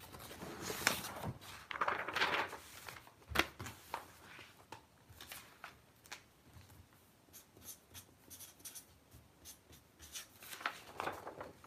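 A ballpoint pen scratches and scribbles a drawing across sheets of paper in short, uneven strokes, fairly quiet, with occasional sharper taps and pauses between bursts of drawing. No one speaks.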